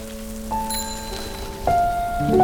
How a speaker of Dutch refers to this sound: En terwijl we teruglopen naar onze fietsen, begint het te regenen op de Westerheide.